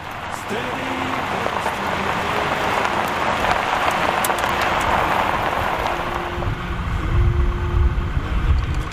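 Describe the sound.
Steady rain falls throughout, a dense, even hiss of drops that stays fairly loud, with faint murmuring voices and low rumbling underneath.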